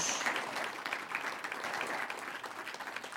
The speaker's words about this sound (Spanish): ¿Cuántos han sido justificados de vida a través de la justicia de nuestro Señor Jesucristo? Dale un aplauso si usted tiene la justicia de Dios.